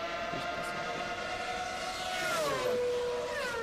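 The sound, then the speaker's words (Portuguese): Street traffic passes by, a steady droning engine tone over a constant wash of road noise, its pitch dipping lower about two-thirds through as a vehicle goes past. No one speaks. “espera só que o trânsito passe Peraí.”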